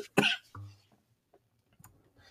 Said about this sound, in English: oh man, we're having a coughing fit.